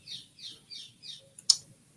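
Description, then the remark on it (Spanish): Birds sing outside an open balcony in a quick run of four evenly spaced, high-pitched calls, followed by a sharp click. A faint low hum sits underneath and no one speaks. “Eh, creo que voy a cerrar el balcón porque oigo demasiado a los pájaros y no me concentro.”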